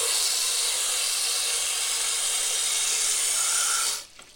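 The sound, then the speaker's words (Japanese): Tap water gushes steadily from a faucet into a cooking pot being filled to cook pasta, with a loud, even hiss for about four seconds, then cuts off abruptly as the faucet is shut. No one speaks. “これね水の水の音はさ割と癒しのはずなんだけど水道から鍋に溜めるとダメだ 何の癒しにもならない音が鳴る”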